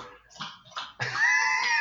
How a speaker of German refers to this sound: Er, er schieben, wir diese Geräusche, er schieben wir diese Geräusche mal auf den Hund. Er, er es er tut's tatsächlich. Ja, ja. Der, der macht gleich, wenn irgendwas, wenn irgendwas im Haus ist.